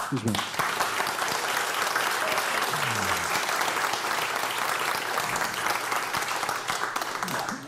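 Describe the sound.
Sustained audience applause, a dense, steady wash of many hands clapping at even loudness for several seconds, with faint voices mixed beneath it.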